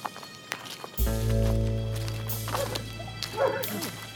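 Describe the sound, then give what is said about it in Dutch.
A dog barks a few times far off, faint over a low, steady droning tone, with soft rustling footsteps in the quiet. “Heel in de verte blaft een hond, maar verder is het stil.”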